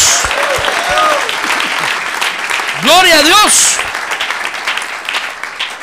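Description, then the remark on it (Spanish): An audience at an evening church service applauds the Lord steadily throughout, a dense, even crackle of many hands clapping, while a man's voice calls out loudly over it partway through. “Démosle un buen aplauso al Señor esta noche.”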